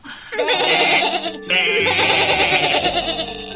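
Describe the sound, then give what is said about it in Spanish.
Lambs bleat loudly in two long, quavering cries with a brief pause between them, several voices overlapping in a wavering chorus. “Todos corderitos, como me pidieron vuestras madres ovejas.”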